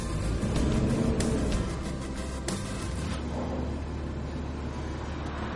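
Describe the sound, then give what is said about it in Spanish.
A black Audi accelerates away with a loud, steady rumble and broad roar, broken by a couple of brief sharp knocks in the first few seconds, after a passenger gets in. No one speaks. “Ari se monta y Navas acelera.”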